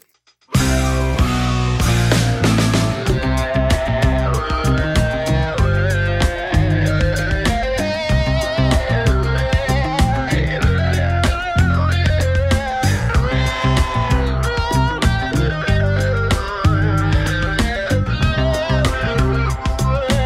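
A loud Brazilian music track plays continuously, full band with heavy bass, dense layered instruments and a steady, driving percussive beat throughout, with no talking over it.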